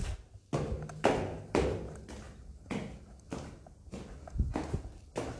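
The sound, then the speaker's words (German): Heavy footsteps stomp up a staircase in a steady rhythm, about nine or ten loud, thudding steps, with no voices. “Stampf jetzt die Treppe hoch.”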